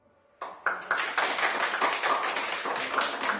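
A group of people applauds, a dense, steady patter of many hands clapping that starts abruptly and holds at a lively, even level throughout, with no one speaking.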